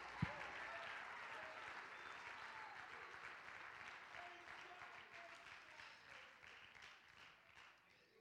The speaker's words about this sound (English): Oh, clap your hands to the Lord.